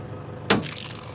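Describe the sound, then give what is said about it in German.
A single sharp rifle shot from a professional kangaroo hunter in Australia cracks out of a quiet outdoor background, its report ringing briefly and decaying into a faint echo. No voices are heard. “Die wichtigste Regel, keine Kängurumütter und jeder Schuss muss sitzen.”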